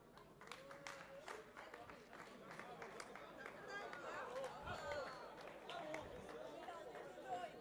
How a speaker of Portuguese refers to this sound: Eu vi, eu vi alguém a bater palmas, começou a bater